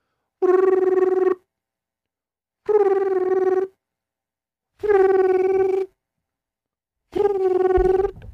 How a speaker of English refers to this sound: Four rings. That's too many for a business. Pick up. Five. Six?